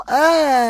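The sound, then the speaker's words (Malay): A single drawn-out, whiny vocal note, a person imitating a cat's soft, pleading, affectionate meow, rising slightly then easing off over under a second, fairly loud. “Itu, itu kucing kenapa pula tu? Manja.”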